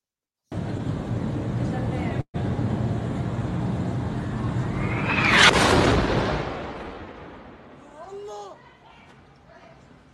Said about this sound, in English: Here's a video verified by the Washington Post that shows the explosion at the hospital. Let's take a look at it.